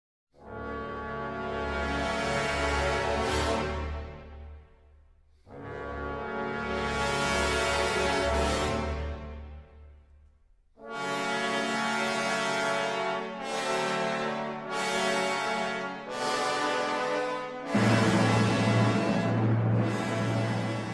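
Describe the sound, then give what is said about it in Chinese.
A passage of Sibelius's Finlandia played by an orchestra: loud, sustained chords with deep bass, starting with two long swelling notes and moving into shorter, repeated chord blasts, with no voices. “你现在所听到的就是西贝流士的芬兰颂，所以你就可以知道西贝流士是一个芬兰人，然后他非常非常的爱国。”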